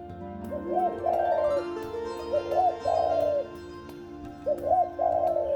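A dove coos three times in soft, rolling phrases, each a warbling low call with short pauses between, heard clearly with a faint low hum underneath.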